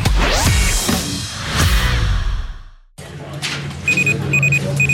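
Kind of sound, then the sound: signal or alarm, alarm clock ringing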